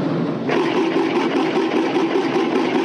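A mechanical train effect from a cinema organ: a steady, loud chugging rumble with a droning engine-like hum, growing fuller after a brief opening and continuing without pause.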